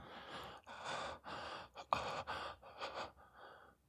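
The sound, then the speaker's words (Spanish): Heavy, rapid breathing, a steady run of about seven airy, gasping breaths at a fairly even level before trailing off into quiet, with no talking. “Mi respiración se hace más fuerte cuando agarro tus nalgas.”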